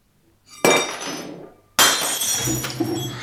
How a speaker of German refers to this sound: Oh, ich habe mein Glas umgeworfen.